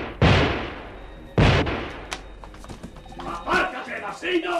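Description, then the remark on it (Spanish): Two loud, sharp gunshots fired from behind a chair ring out about a second apart, each with a brief echoing tail, followed by scattered thuds and a busy, muffled commotion. “El periodista fue detrás del muchacho cuando surgieron detrás de la silla de Bresel dos disparos.”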